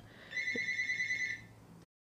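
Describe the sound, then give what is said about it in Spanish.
A short burst of an electronic telephone ringtone, a bright warbling trill lasting about a second over a faint background hum, then cutting off to silence. No one speaks. “Una pequeña disculpa, el teléfono no sonó.”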